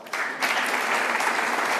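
An audience breaks into steady applause as a company CEO is called on stage for the Engie prize at an awards event, many hands clapping in a dense, even wash of sound that swells quickly after a brief quiet start and stays loud throughout.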